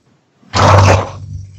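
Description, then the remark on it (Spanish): A single loud, gruff dog bark or growl erupts, rough and throaty, lasting about half a second before trailing off into a low rumble. No one speaks. “Parece escuchar un perro.”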